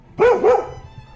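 A dog gives two quick barks in close succession, loud, with nothing else audible around them.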